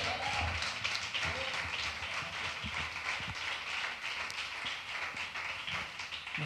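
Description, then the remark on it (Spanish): Steady crowd applause fills the whole stretch, a dense wash of many hands clapping at a fairly even level, with a few sharper claps standing out and faint voices mixed in underneath. “Ahora, un fuerte aplauso a Alvarado.”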